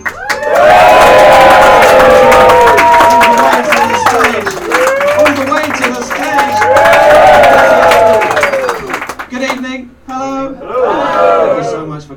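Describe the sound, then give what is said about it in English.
A large audience claps and whoops as a comedian makes his way to the stage, loud, sustained cheering and high excited shouts for about nine seconds, then the noise drops away and a voice begins speaking. “and now the comedian makes his way to the stage and for the first time the audience see him and start clapping and whooping in great delight.”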